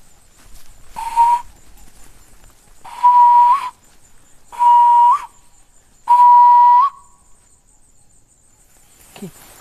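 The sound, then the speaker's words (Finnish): Four sustained, steady whistles at an even pitch, made by guides and rangers signalling each other on foot in bush and grass while tracking rhinos, each ending in a slight upward flick, spaced about a second apart like bird calls, loud against a quiet outdoor background with faint insect hum. “Oppaat ja metsänvartijat kommunikoivat keskenään lintujen ääntelyä muistuttavilla vihellyksillä”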